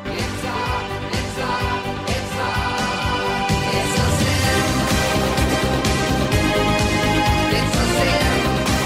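A 1980s British synth-pop song plays loud and full, with steady electronic beats, layered synthesizer chords and bright high textures, with no talking over it.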